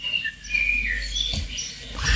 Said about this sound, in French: Bonjour aux oiseaux aussi au passage.